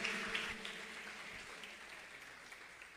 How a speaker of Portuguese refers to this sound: Aplauda o Senhor nessa noite.